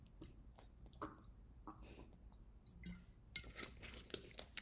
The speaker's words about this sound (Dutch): Um, ehm, neem ik nog even een slokje water.